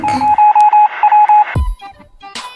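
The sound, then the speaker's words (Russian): Radio-room sounds aboard a small boat: a steady high-pitched tone pulses in quick, uneven beeps over hissing static, then a low thump gives way to crackling, warbling radio tones. No one speaks. “давайте сначала побеседуем с ней в радиорубке нашего катерка. Радиорубка.”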